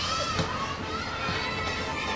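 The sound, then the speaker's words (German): A dense, steady din of many children shouting and yelling at once, loud, filling the whole stretch without a break, like a noisy playground crowd. “Kindergeschrei und ein lautes Lelle, Lelle, Lelle Lelelelelele.”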